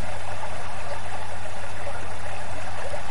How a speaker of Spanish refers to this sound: El río te sonríe y te dice, vuelve, vuelve a mí, porque todo lo que tú desees está aquí conmigo.